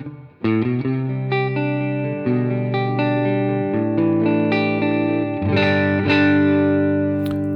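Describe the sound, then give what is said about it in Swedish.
An electric guitar with a Gibson-style pickup switch, set to its neck pickup, plays a run of warm, rounded notes and chords through an amplifier, sustained and slightly overdriven, with no one talking. “Och eh, halsmicken låter så här.”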